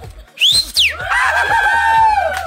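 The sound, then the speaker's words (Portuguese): Loud herding yells to cattle while handling them: a sharp rising whoop, then long wavering cries that slide down in pitch, with no talking around them. “Aí eu dou uns gritos arrepiados, mexendo com boi.”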